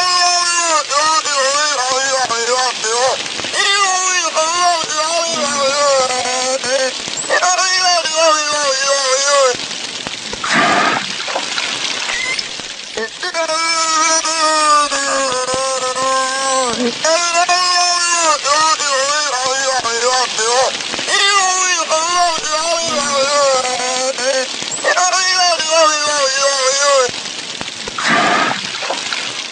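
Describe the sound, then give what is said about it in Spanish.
A whale makes warbling, speech-like vocalizations in long, mumbling phrases over a steady watery hiss, pausing only briefly. The calls sound eerily close to a muffled human voice. A recording of Nock, a sea animal said to have learned to talk to humans. “A continuación van a escuchar una grabación de Nock, una de las únicas grabaciones que se pudo tener de un animal del mar que dicen aprendió a hablar y le hablaba a los hombres.”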